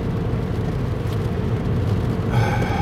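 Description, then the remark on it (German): Steady low road rumble inside a moving car on the B224 road, then near the end the car's rear windshield wiper gives a short, scratchy squeal that rises briefly above the engine noise. “kratzige Geräusch von hinten ist der Scheibenwischer hinten.”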